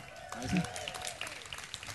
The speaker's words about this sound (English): Can we clap our hands Un for him again?